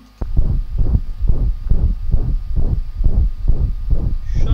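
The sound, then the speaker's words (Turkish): A steady, rhythmic whooshing pulse heard through a stethoscope, about nine low swishing beats in a row, where a continuous murmur largely drowns out the distinct heartbeat thuds. “Sonra dinlediğimizde sadece neredeyse üfürüm sesini duyuyoruz.”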